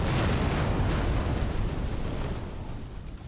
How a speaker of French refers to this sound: Le capitaine de l'armée croit entendre Vaya, il appuie sur le bouton, le pont explose, sauf que aucune caméra ne tourne à ce moment-là.